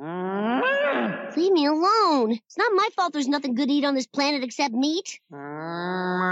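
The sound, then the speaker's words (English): The cartoon cow Lou lets out a long, low moo, heard by Bart in his head at night, then a man speaks briefly, and another drawn-out moo rises at the end, fairly loud. “I hear Lou mooing in my head.”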